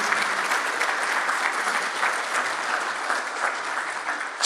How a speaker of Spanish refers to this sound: vamos a darle un aplauso al Señor y a María